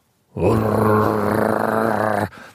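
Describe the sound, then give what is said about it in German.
A person imitates the growl of a large silver American Staffordshire terrier of about 40 to 50 kilos with a deep, rasping, sustained rumble lasting about two seconds, loud, cutting off abruptly before a brief quiet breath. “Stafford Terrier, irgendwie so ein Musk, so ein 40, 50 Kilo Hund, so ein silberner, steht da und macht”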